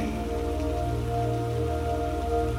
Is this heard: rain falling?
yes